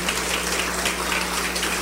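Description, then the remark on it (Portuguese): A church audience claps together to welcome visitors in a dense, steady wash of applause, many overlapping hand claps blurring into a continuous crackle that holds an even loudness throughout, with no voices. “Vamos aplaudir o Senhor Jesus pela vida dos visitantes.”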